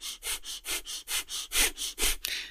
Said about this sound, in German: Und dazu gibt es häufig diesen Feueratem. Das ist dieser Atem